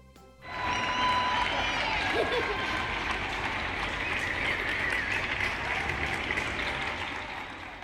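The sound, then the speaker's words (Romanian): Sustained, dense applause from many people on balconies in Spain, for doctors fighting the COVID-19 crisis, rises quickly and continues steadily, with an outdoor, echoing quality and faint cheering mixed in. “Aplauzele pe care le-ați auzit provin din Spania și au fost adresate medicilor care luptă din greu în această perioadă cu rezolvarea crizei COVID-19.”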